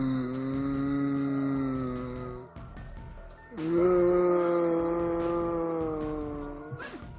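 Two long, drawn-out zombie groans, loud, separated by a brief pause; a voice imitating a zombie stirring awake, with no other talk.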